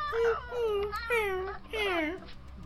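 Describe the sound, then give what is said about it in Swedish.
A voice imitates a whine: three drawn-out, high whimpering cries that slide downward in pitch, fairly loud, one after another with short gaps. “… gnälla där.”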